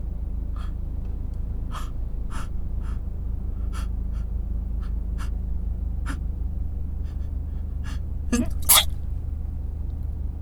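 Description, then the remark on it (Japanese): A voice imitates stifled sneezes over and over, a string of short, muffled bursts spaced irregularly, ending with a louder, sharper pair near the close. No words are spoken. “今のいいんじゃないあれ我慢したくしゃみじゃない今の。”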